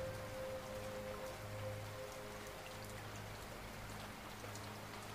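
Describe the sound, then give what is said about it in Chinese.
Steady rain falling, a soft continuous patter of many drops with a low, even hum underneath; no voices, just a constant gentle wash of sound throughout. “你愿意整个夜晚都躺在这里，在沉沉的睡眠中，继续听着这滋养的雨声。”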